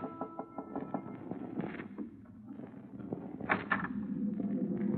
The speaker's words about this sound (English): Then, the night before we were due to dock in Southampton, I was surprised in my cabin by an unmistakably feminine knock on the door.